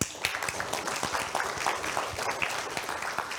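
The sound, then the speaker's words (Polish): A crowd applauds steadily, many overlapping claps forming a dense, continuous patter at moderate volume, with a few faint voices mixed in underneath. “Brawa, się należą.”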